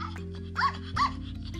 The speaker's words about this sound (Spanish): Carlos se agacha para mostrarle uno a uno los perritos a Dulce. Todos lloraban